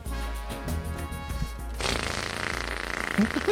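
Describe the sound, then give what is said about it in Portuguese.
A voice mimics a small 50cc moped engine in a radio advert for the Léo Motos dealership, starting with a low, steady buzzing idle and then breaking into a loud, raspy, sputtering rev that keeps going to the end. “O homem é uma enciclopédia de, de sonoplastia é um de moto.”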